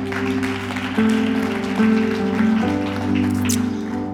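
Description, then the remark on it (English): A church audience claps steadily for several seconds, a dense crackling patter of many hands, while sustained organ or keyboard chords hold and shift underneath. No one speaks. “Good place to clap.”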